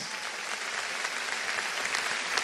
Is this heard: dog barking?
no